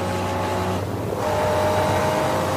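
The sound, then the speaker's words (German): A loud, steady race car engine drones at high speed, about 220, heading toward Schwedenkreuz, one of the fastest sections; its harmonic whine holds continuous, with a brief dip and shift in pitch partway through as it runs on. “Ich fahre jetzt Richtung Schwedenkreuz, eine der schnellsten Teile. Fahrt man selbst mit diesen Autos 220 und jetzt nach dem Schwedenkreuz anbremsen und schon ist der Abstand von 100 Meter wieder auf 20 Meter verringert worden.”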